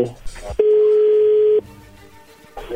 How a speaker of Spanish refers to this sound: A ver, ahí se está marcando, no haga ruido. Ok.